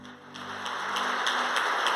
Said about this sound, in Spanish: ¿Podemos dar un aplauso al Señor, por favor?